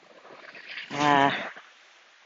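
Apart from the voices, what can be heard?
ocean waves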